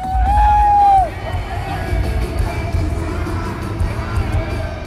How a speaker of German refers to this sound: Vor dem großen Stadion drängen sich Menschenmassen. Riesige Bildschirme zeigen einen tanzenden Prabowo Subianto. Die Menge jubelt dem Ex-General zu.